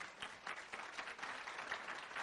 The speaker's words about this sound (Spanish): nuestros, eh, tremendos líderes que dirigen esta corporación, que son la familia de Voz y Van Andel, para quien pido también un fuerte y caloroso aplauso